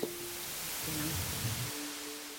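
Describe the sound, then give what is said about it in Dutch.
A steady, even hiss of white noise, played as test audio through headphones, fills the whole clip without pause, fairly quiet, with a faint low hum underneath and no voices. “En nu begint de white noise.”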